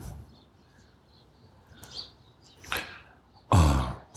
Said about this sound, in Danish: fuglesang og god energi eller god stemning